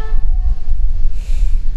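A train rumbles past, its horn sounding a steady tone at first before fading into heavy low rolling noise and a rushing hiss, with no voices.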